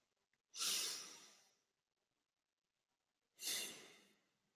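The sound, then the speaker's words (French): A deep breath taken together: a long, airy rush of air, a pause of nearly two seconds, then a second equally long, breathy whoosh, with no talking. “Euh, on va pouvoir prendre une grande respiration ensemble.”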